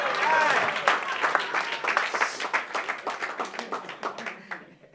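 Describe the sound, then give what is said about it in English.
An audience claps, starting as a dense burst of applause that thins into scattered, uneven hand claps, sharp and bright, gradually tapering off over a few seconds. “If you clap, if you clap your hands, then it means you are next in line.”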